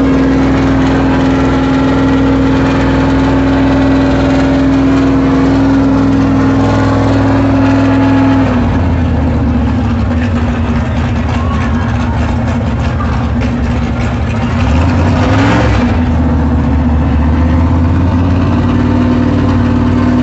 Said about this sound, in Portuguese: ligou o motor do Stock Car.